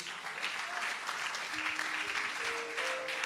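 Sustained applause from an audience at a church service, given in praise of God, a dense, steady wash of clapping that holds at an even level throughout, with faint sustained tones like a soft instrument underneath.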